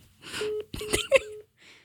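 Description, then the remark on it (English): A phone call cuts off: a few clicks and rustles of the line disconnecting over a steady, thin electronic tone, then a brief faint hiss as it goes quiet. “I'm afraid I'm going to have to hang up now.”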